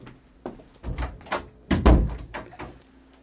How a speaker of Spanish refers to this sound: Cierra la puerta.